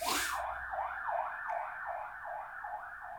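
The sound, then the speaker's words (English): A police car siren wails as the car passes outside, sweeping up and down in a steady, repeating rise-and-fall pattern, loud and continuous, with faint background noise. “That police car just heard about the bit where a uh, River creeps on Rory accidentally.”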